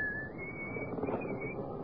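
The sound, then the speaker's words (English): A man walking in the dark whistles a steady, slightly wavering tune for a couple of seconds, the clear tone sitting above a dull, noisy background at moderate loudness. “He's coming now, whistling in the dark.”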